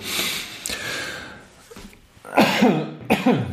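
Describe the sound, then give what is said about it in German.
Several harsh coughs in quick succession in an office recording studio in Cologne, with a breathy throat-clearing rasp at the start and two loud coughing bursts near the end. “Kurz husten, Entschuldigung.”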